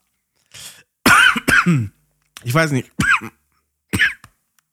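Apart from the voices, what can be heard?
coughing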